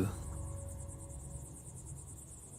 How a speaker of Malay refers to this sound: Bis kiri kanan masa tu hanya pokok-pokok yang batang pokok tu besar-besar semua kan lalu dekat kawasan tu jagat cuak jugalah sebenarnya lalu kat kawasan tu kan dengan bunyi cengkerik dia